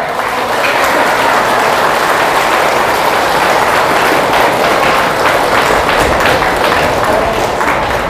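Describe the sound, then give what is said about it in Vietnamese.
Loud, sustained applause from a crowd asked to laugh out loud and clap loudly, a dense wash of many hands clapping steadily without pause for several seconds, with no voices standing out. “hãy cười lên thật là to và vỗ tay thật lớn”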